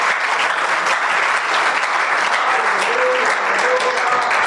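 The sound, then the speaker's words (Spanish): An audience claps together in steady, dense applause for the King of Kings and Lord of Lords, holding at an even loudness throughout, with a few faint voices calling out beneath the clapping. “Démosle un aplauso a Red de Reyes y Señor de Señores.”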